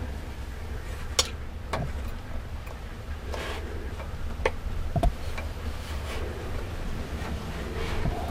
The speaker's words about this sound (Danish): Så det her er lyden af vindtelefonen, som står her med udsigt ud over det sydfynske øhavn.